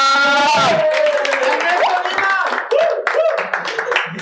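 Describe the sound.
A crowd claps steadily in dense, overlapping bursts to welcome a man invited to come in, with loud voices calling out and talking over the applause throughout.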